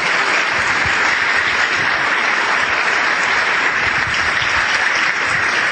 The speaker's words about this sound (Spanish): Yo les pido para todos estos líderes un gran aplauso y agradecimiento.